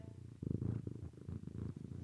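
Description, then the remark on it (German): A cat purrs close to the microphone in a steady, low rumbling rhythm, each breath cycle pulsing in and out over about two seconds, with no talking. “Nee, ein bisschen schnurren hört man es bestimmt.”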